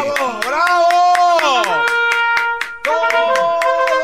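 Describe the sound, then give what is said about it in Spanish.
Steady rhythmic hand clapping, roughly four crisp claps per second, runs the whole time beneath loud, drawn-out voices holding sustained tones. “Sí, ah, aplaudí.”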